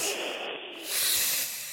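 A steady, breathy hiss lasting under two seconds, dipping briefly then swelling louder, like a snake hissing. No voices are heard.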